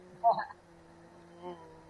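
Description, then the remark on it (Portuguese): A person hums a steady, droning buzz in imitation of a fly, held for about two seconds, with a louder vocal burst near the start and a smaller swell later. “Já virou uma mosca.”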